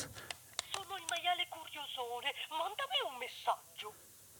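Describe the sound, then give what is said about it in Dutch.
A child's Italian toy telephone, being sat on, plays a short burst of tinny, electronic-sounding recorded speech with a few clicks, moderately loud, lasting a few seconds. “Dit is een Italiaans telefoon van mijn kind. Dat, daar zit ik nu op.”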